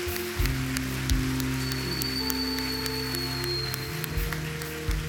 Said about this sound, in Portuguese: Vamos aplaudir o Senhor mais uma vez, igreja, por essas decisões?